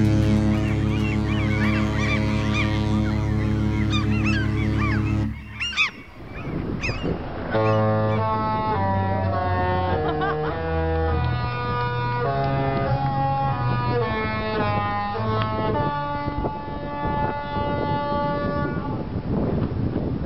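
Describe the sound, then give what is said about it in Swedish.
A Disney cruise ship horn gives a long, loud, chord-like blast that cuts off abruptly, then sounds a slower musical tune of sustained horn notes, with no talking. “den där tutan känner man igen. Ja. Måste ju vara Disney.”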